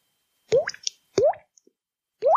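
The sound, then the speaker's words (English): Three wet plops from a body part being flicked, each a quick hollow pop with a rising pitch, spaced roughly a second apart in otherwise quiet surroundings. “Ooh, it sounds wetter when you flick it.”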